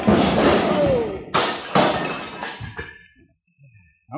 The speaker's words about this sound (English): Look out, Chad. The way you're hitting him, he's going to fall against the bar and upset those beautiful bottles.